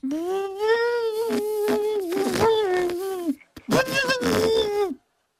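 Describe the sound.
A person imitates the trumpeting from an African elephant's trunk, as on a Serengeti safari, with a long, loud, droning blast of about three seconds, then a brief pause and a second, shorter blast.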